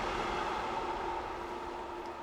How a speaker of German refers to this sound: Der Güterzug ist vorbeigezogen. ich glaube, das hört man auch.